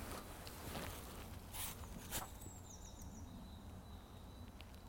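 Soft, brief rustles and scratchy patters in leaf litter as a bank vole scurries through undergrowth in Limburg, faint, with thin high chirps or insect tones in the quiet background.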